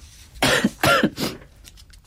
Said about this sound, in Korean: 네, 어, 방송 중에 제가 기침을 너무 많이 해서 죄송합니다.